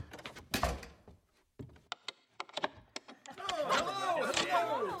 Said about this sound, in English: Well, be quiet about it. I'll lock the door so no one can blunder in.